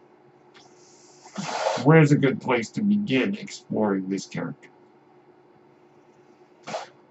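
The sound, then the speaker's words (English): A man's own medical ventilator gives a soft breathy hiss and click just before he starts speaking, then another brief hiss after he pauses. “That noise you hear is my ventilator.”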